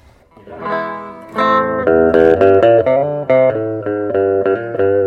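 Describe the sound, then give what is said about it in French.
An electric guitar with its two pickups wired in series and out of phase plays a short run of sustained chords and notes with a thin, nasal, hollow tone, loud with no talking. “les deux micros sont en série, donc c'est comme si c'était un gros micro triple bobinage, mais câbleur phase”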